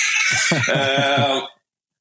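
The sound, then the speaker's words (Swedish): A young boy lets out a loud growling noise like a snarling troll, a single trembling, pulsing vocal burst lasting about a second and a half before cutting to silence. “Uh, en, förlåt, det är min, min son här som kliver in och uh, låter som ett morrande troll.”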